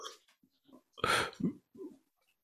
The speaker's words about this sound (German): So, das Gähnen wurde präsentiert